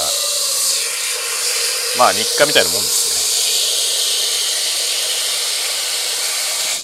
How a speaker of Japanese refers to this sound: 水の音がしておりますいつものようにいつものようにスパゲティを茹でようと思います